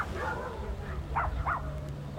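Dogs bark at each other from the Mexican and American sides at Hakumba Hot Springs, a very small, poor town. A couple of faint barks echo out in quick succession over a steady low outdoor hum, with more muffled barking in the background.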